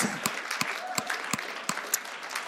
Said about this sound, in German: Und ich würde sagen, das ist ein Applaus für viele, die da sind. Ich gebe euch mal einen zurück und ihr dürft mithelfen, sonst steht es noch nicht.